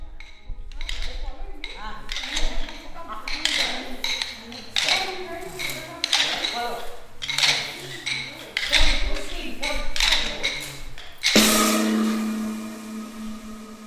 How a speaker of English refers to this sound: At the Nelamangala Learning Center, this sound of the gong announces the next activity of the day mealtime, music, art, walk, trip to the neighborhood, cooking, and maybe a nap.